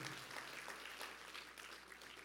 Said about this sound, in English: Come on, we can clap for that. That's fantastic. Only God can do that.